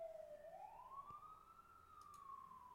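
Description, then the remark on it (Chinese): A loud fire engine siren wails alone, its single tone sliding up and then holding high before easing slightly down, with a low rumble of traffic underneath and no talking. “哎，这个声音听起来像消防车诶，不像救护车诶。”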